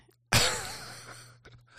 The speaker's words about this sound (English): you're yawning loudly into the mics and refusing to edit it out.